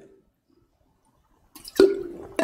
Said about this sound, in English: Excuse me, as I spill water on myself.